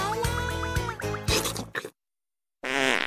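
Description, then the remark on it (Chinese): A string of loud, wet, sputtering farts with a wobbling, buzzy pitch, then a brief silence before one more drawn-out raspy fart. No voices are heard. “修罗能不放屁吗？”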